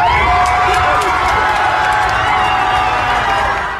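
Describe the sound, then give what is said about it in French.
A large crowd of hundreds roars and cheers continuously outside the courthouse in Minneapolis at the announcement of the Chauvin verdict, a dense wash of many voices shouting together, loud and sustained throughout with scattered clapping. “la foule a exulté devant le tribunal à l'énoncé du verdict.”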